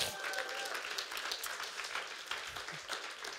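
A church audience in Paderborn claps steadily for its new site leader, a dense wash of many hands applauding at even loudness throughout, with a faint voice briefly audible beneath it.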